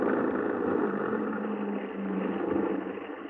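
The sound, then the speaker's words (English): Ben Sutherland's truck engine rumbles steadily, a dense low drone that swells slightly near the end as it pulls up at his house in Soderbury, escorted by a car. No voices are heard. “Ben Sutherland and his truck had been spotted leaving a town five miles away.”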